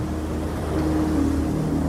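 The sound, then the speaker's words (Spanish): Steady, gentle ocean wash fills the scene at a constant moderate level, with a low droning hum underneath like a boat engine; no voices. “los dos solos, solo el ruido del calmo océano como banda sonora de una historia que por fin se volvió justa.”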